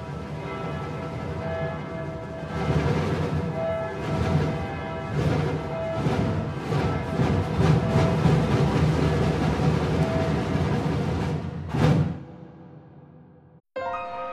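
Heavy cathedral bells ring in a dense, sustained wash while samba drums pound out a steady rhythm alongside them; the mix stays loud throughout, then fades and cuts off abruptly at the end.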